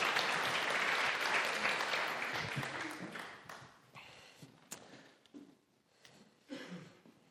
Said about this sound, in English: Thank you. Round of applause for our cast. Thanks.